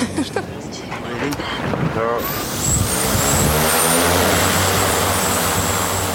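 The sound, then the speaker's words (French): A camera drone spins up and lifts off, its propellers building into a loud, steady buzzing whine that swells after a couple of seconds and holds, with faint voices early on. “Le drone s'élève, on a l'écran sous les yeux et là, effectivement, avec la hauteur, on comprend beaucoup mieux ce qui se passe.”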